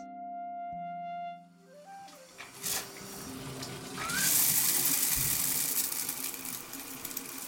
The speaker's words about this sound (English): And now here I am today, taking a shower in my tiny Parisian apartment remembering the comfort that the house of my Ukrainian grandma brought to me.